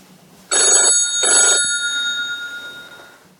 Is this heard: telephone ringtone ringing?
yes